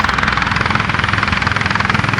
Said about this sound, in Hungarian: A helikopter másodperceken belül a víztározó fölé ért.